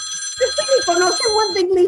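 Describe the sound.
A telephone rings steadily in the background while voices talk loudly over it, the ringing tone persisting beneath the chatter throughout.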